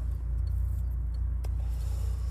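Steady low rumble of cars driving along a road with their hazard lights on, a continuous engine and tire drone with a faint rhythmic throb at moderate loudness.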